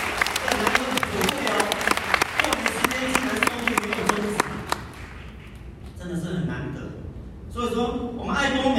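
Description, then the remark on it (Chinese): An audience breaks into dense, steady applause with crowd voices mixed in, lasting about five seconds before fading. A person then starts talking over the quieter background. “要不要给公司一个掌声呢？”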